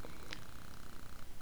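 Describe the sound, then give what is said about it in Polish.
A dog makes low, rhythmic snuffling and grunting noises in the background, fairly quiet and steady, with a brief sharper squeak partway through and no one speaking. “Te dźwięki z tyłu to mój pies.”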